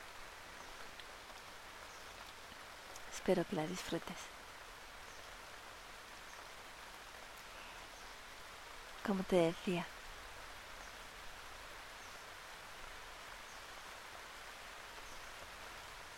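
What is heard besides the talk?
light gentle rain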